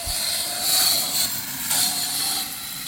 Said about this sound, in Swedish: Nu kommer motorcykeln igen, då får vi flytta på oss. Han kör förbi här igen. Han kör, han gillar att köra fram och tillbaka. Ja. Ja, kom han igen här. Ska vi se vad han gör här. Ska vi ta han. Full hastighet.